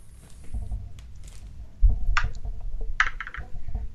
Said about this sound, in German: So, ich habe gewürfelt und die Zahl lautet 2. 2.